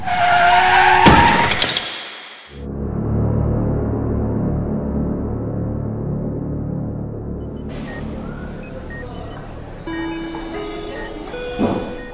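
A loud burst of car horn and shrill screeching car brakes in the middle of a street, with a sharp impact, cut off abruptly and followed by a steady low rumbling drone with faint tones.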